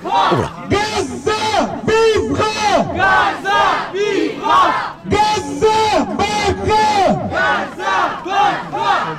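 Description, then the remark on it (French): A large pro-Palestine protest crowd at Place de la République on Saturday 21 October around 14:30 chants "vivra Palestine" in unison, loud, the same short phrase repeating in a steady, driving rhythm with brief pauses between rounds. “vous aurez compris que dans toute la France, des manifestations ont pu avoir lieu”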